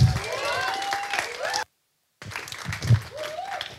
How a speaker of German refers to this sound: Hey, lasst uns mal dem Pastor Harry einen richtig fetten Applaus geben.